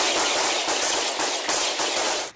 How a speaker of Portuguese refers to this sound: Os equipamentos fabricados no Irã e usados pelos russos driblaram o sistema de defesa aérea e os tiros dos policiais, que desesperadamente tentavam impedir os ataques a prédios civis.